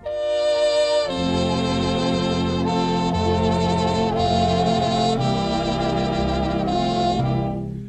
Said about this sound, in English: Do you know what this song is called? Is it Auld Lang Syne, Auld Sang Line, or Old Song Sang? Of course, some of you may know it as the Old Acquaintance song, but it's actually called Auld Lang Syne. The melody comes from an old Scottish folk song,